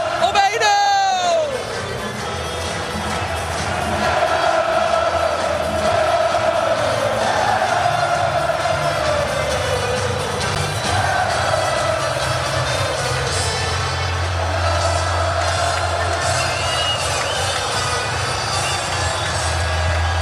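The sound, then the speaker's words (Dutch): A huge stadium crowd in Feyenoord's De Kuip roars continuously after Osama Idrissi's early goal, a dense wall of cheering, shouting and chanting voices that stays loud and steady throughout, with rising whoops at the start. “Maar zo vlak na die goal leek het alsof die Kuip weer leefde. Dat die Kuip weer beefde.”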